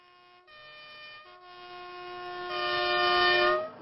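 A train horn sounds in long, sustained chord-like blasts with a brief break, swelling louder toward the end over a low rumble of the moving train. No one speaks.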